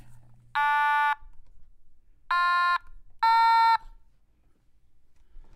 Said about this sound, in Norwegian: Jeg har fått meg et lite instrument. Og det kalles for automatone.